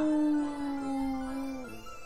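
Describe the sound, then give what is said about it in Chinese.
A human voice imitates a wolf howl: one long, steady, mid-pitched wail that slides slowly lower and fades out after nearly two seconds, with no other sounds. “忽然，他停了下来，喘了口气，发出最后一声狼叫”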